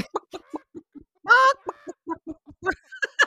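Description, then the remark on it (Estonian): A person imitates a clucking hen with a rapid series of short, choppy clucks, broken midway by a longer, louder squawk, then more clucks ending in a rising cackle. “sellega tuleb meelde see intervjuu mingi Hollandi mingi kanafarmeriga, kes naeris nii nagu kana öelnud.”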